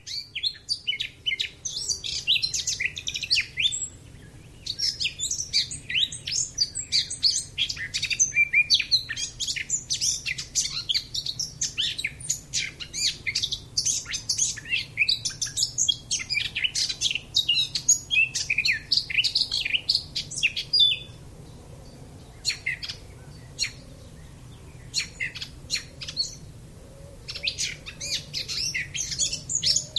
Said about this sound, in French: Vous allez entendre une fauvette à tête noire entendue à Béruge dans la Vienne par Jacques Berthaud le 25 juin 2011.